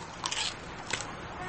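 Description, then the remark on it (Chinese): Crisp crunching of a boy chewing finger biscuits, two short bursts of crackly bites, the first longer and the second quick, against a faint steady hiss. “男生撇撇嘴，但还是拿了一块放到嘴里嚼着。”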